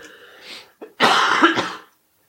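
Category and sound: human body sound, coughing fit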